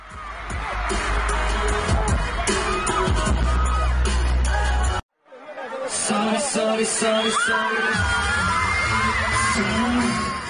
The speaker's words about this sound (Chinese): 全场都是在欢呼。这个录音中，我们可以听到，呃，当时呐喊的声音非常大哈。